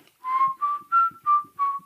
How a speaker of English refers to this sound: so my horn just happens to be here. I never travel anywhere without it.